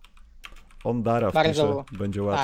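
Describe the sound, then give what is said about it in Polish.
A short burst of quiet, quick clicks from typing a musician's name on a computer keyboard, soon joined and mostly covered by a man speaking. “Wpiszę, jak on się nazywa?”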